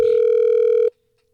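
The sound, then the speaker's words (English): A steady, buzzing telephone tone holds at an even pitch for just under a second, then cuts off abruptly into silence, as a call is placed to a woman on The Miguel Show on the new Hot 1015. No voices are heard. “We're gonna get her on the phone um,”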